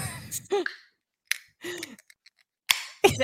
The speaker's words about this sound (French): Ben, Est-ce que tu veux que je mic quand j'ouvre la canette ou on va ben s'abstenir? Non, c'est sûr que tu mics ça.